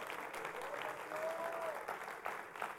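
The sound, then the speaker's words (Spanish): An audience applauds God together, a steady, dense wash of clapping from many hands that fills the space throughout, with a faint sustained tone briefly audible beneath it. “Dale un aplauso al Dios de rey al Dios de gloria, al Dios todopoderoso.”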